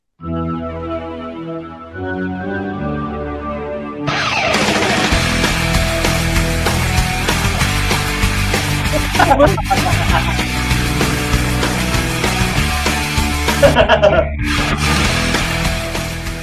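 A television series theme song plays loud, opening with a few seconds of sustained, organ-like tones before a full, driving rock band crashes in and carries on steadily to the end.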